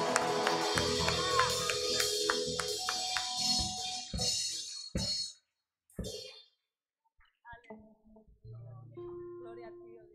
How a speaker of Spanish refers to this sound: Aleluya, dale un fuerte aplauso al Señor.